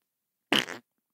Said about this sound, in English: Fart fart.